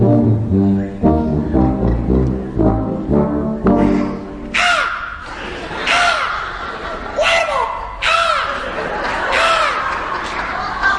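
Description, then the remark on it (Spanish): After several low, droning voiced calls, a person on a stage mimics a crow with about six loud, harsh caws repeated at a steady pace, clear. “la vaca, el cuervo y, lo que digo, ¿eh? un auténtico zoológico eh, sobre el escenario.”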